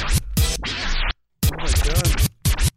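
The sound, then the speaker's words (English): Loud scraping and rustling as headphones are untangled from a microphone, coming in rough bursts with a short silent pause partway through; no one speaks. “oh no, my headphones are all caught up on the mic up in this bitch.”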